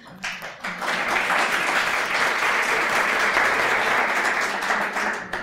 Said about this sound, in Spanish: iba a ser la primera cuña publicitaria aplaudida de la historia de la radio y ha sucedido.